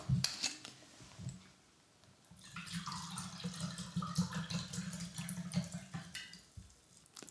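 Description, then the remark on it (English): Moscato wine pours steadily into a glass for several seconds, filling it almost to the top, a gurgling stream with a rising pitch as it fills, preceded by a few light clinks and taps. “Pour yourself another glass of Moscato.”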